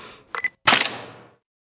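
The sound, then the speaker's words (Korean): A camera shutter fires as a couple's first wedding anniversary photo is taken, a quick mechanical click-clack, a short whir, then a louder snapping release that rings briefly before fading, with no voices. “자, 찍겠습니다. 하나, 둘, 셋.”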